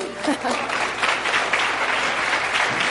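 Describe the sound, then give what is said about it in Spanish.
An audience at a seminar claps steadily for a few seconds, a dense, sustained patter of many hands at moderate volume, with no one speaking over it. “Los nuevos dicen, ¿y a mí cuándo me van a dar un aplauso de que yo soy nuevo por primera vez en este seminario?”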